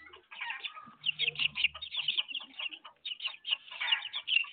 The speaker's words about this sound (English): I hear fake chickens. I hear real chickens. chickens everywhere.